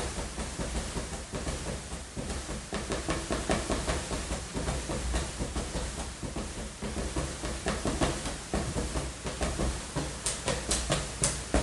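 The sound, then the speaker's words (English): Air rushes loudly and steadily out of a balloon for about twelve seconds, a harsh hiss with a rapid fluttering rattle running through it and no voices. “That a noisy balloon.”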